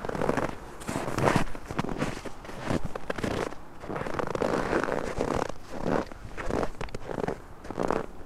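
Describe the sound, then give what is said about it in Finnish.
Crunching footsteps on a snowy path, steady, one step after another in a continuous walking rhythm with no voices, as the walker heads to the Kutuniva bridge. “Ja nyt mä siirryn Kutunivan sillalle, kävelen tästä ohi”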